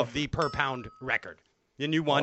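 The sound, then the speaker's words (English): A short, steady electronic beep signalling a win rings out at a constant pitch for under a second while people keep talking over it. “That little beep indicates that you won.”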